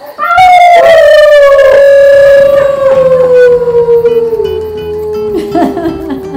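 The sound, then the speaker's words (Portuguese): After a count to four, several voices howl together in a long, loud, sliding wail that slowly falls in pitch, imitating a pack howl, with a bit of laughter breaking in near the end. “Ó, dessa vez eu vou contar até 4 tá e a gente tá uiva, tá?”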